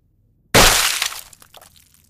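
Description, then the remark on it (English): A sudden, loud crack of about 200 bones breaking at once, as a woman's entire skeleton shatters, bursts out of silence, followed by a brief spray of smaller crackling snaps that fade over about a second and a half. “It's more like about 200 different bones breaking at once as her entire, body, skeleton.”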